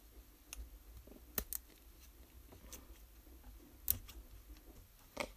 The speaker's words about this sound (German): Zum Glück ist es so ein Stab, den man so leicht auch mit der Schere schneiden kann. Also da schneidet man so ran, da kann man den so abbrechen.